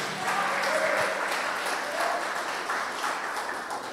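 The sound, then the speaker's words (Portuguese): An audience applauds Jesus, many hands clapping together in a dense, steady wash that holds an even, fairly loud level from start to finish without a clear break. “E se você crê nisso, aplauda Jesus.”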